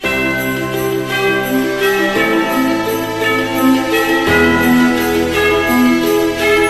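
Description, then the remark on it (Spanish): A loud, steady peal of wedding bells rings without pause, with layered tones that overlap and shift pitch a few times as the bells keep chiming. No one speaks. “Y suenan campanas de boda.”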